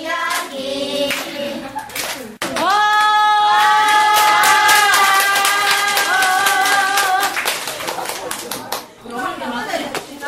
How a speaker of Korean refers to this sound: 한 뼘은 더 잘한 듯한 아이에게 엄마들은 힘껏 박수를 쳐준다.